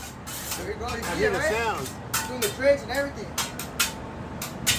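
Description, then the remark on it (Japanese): Metallic clattering and scraping on a hot teppanyaki iron griddle, with sharp clinks and taps scattered throughout over a steady hiss, while people talk underneath. “これ鉄板のあの音”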